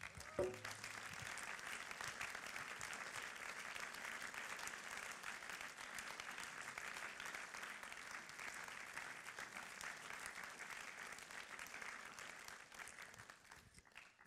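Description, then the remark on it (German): Sustained applause from a crowd, given as applause to God. Dense, steady clapping holds at an even level for about fourteen seconds before tapering off at the end. No voices stand out. “Jetzt geben wir Gott wieder Applaus, bis ich das nächste T-Shirt anhabe.”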